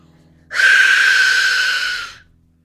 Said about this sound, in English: Oh, fuck. I don't know, does it sound like someone screaming to their death? Maybe not. It's certainly not pleasant anyway. So there you go, that was the Aztec death whistle